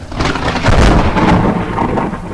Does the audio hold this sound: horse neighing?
no